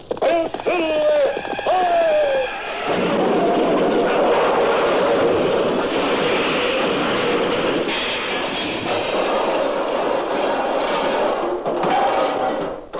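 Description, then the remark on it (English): A high, wavering whinny rings out briefly, then loud galloping hoofbeats of the horse Silver from The Lone Ranger pound steadily for about ten seconds, with a dense, rushing clatter throughout. “From out of the past come the thundering hoofbeats of the great horse Silver.”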